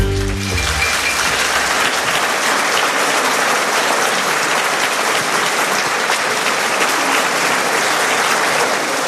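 Loud, sustained applause from a large audience at the Opéra de Nice, France, welcoming author Jean-Marie Gustave Le Clézio, a dense steady wash of clapping that stays strong throughout, with a brief low tonal sound at the very start.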